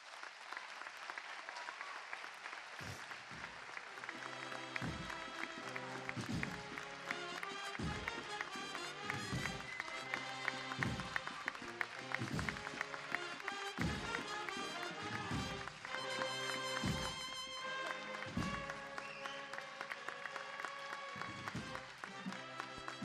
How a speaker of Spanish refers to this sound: Estes son os aplausos para o terceiro pregón cofrade que nesta ocasión deu Silvia.